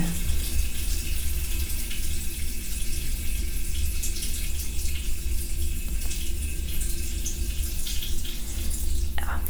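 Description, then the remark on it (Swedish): A person urinating into a toilet: a steady, unbroken trickle of liquid splashing into water, holding an even loudness throughout with a low rumble underneath and no voices over it. “Och som ni hör eh, så kissar jag nu”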